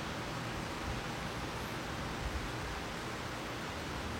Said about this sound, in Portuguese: A gente está testemunhando o nosso estado emocional nesse momento, aceitando, como eu estou aceitando essa chuva que está caindo aqui fora.